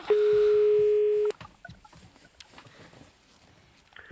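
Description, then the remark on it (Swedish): A steady, loud telephone tone holds for about a second, then cuts off abruptly, leaving faint line noise and soft clicks before a brief blip at the end; an outgoing call from the Barnens romanpris jury to the author of a story. “Jag tycker att vi ska ringa”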